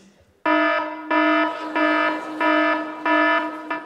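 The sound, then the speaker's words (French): An alarm clock rings loudly in repeated harsh electronic bursts, roughly five pulses with short gaps between them, each one a steady buzzy tone rich in overtones. “Qui, a ce réveil matin-ci”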